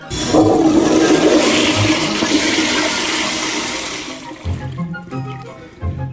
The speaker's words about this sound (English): I'm going to play a toilet flush.